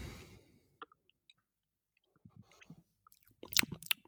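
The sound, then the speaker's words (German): Quiet chewing of two pieces of Lindt dark chocolate, with a few small clicks and bites, then louder crunchy snaps toward the end as pieces break between the teeth; no talking. “Ich hab da so eine Lind-Zartbitter-Schokolade und hab da zwei Bröckeln gegessen.”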